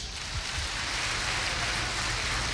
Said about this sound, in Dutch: en ik dank ook die mensen dat u aanwezig bent. Geef die mensen een applaus.